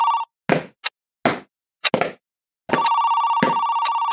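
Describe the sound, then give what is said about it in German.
A telephone bell rings briefly, then several dull thuds and knocks follow before the bell starts again, ringing steadily and fairly loud with a fast trill until the end. “Ja, hallo? Seltsam. Die Leitung scheint gestört zu sein.”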